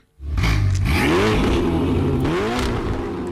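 A powerful sports car engine roars, revving hard through rising gear sweeps as it accelerates, loud and sustained with no one speaking.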